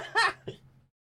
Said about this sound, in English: oh no. Now I've got hiccups. Hiccups and a sore throat.